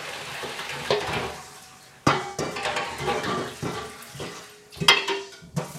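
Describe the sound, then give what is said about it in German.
Water used to rinse cooked spätzle is poured off, splashing in a steady rushing wash, broken by a few sharp metallic clanks of a pot and strainer, with no talking. “Und das aus dem Abschneckwasser überleeren.”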